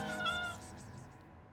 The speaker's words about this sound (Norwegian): Det går en katt og mjauer i den skarpe påskesola på Leirsund. Den går langs husveggen og leter etter noe. Bryter stillheten og vifter med halen.